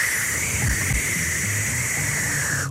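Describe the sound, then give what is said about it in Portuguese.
A voice imitates a can of whipped cream (chantilly) spraying, as if aiming its nozzle: one steady, hissing burst lasting nearly three seconds, with a faint low rumble beneath and a sudden cutoff at the end. “Eu abro o frigorífico, tiro o chantilly e faço.”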